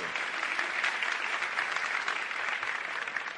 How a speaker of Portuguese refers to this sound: Uma salva de palmas para a garotada aí. Obrigado.